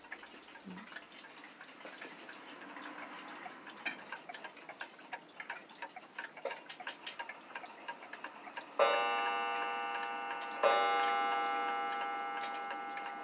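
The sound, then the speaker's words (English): Steady mechanical ticking like a small mantel clock, fairly quiet, with two bright chime-like strikes near the end that ring out and slowly fade. “Made me think of like a little clock on a mantelpiece like a little small sort of brass rounded uh, topped clock on like this mantelpiece in a big room that was kind of empty.”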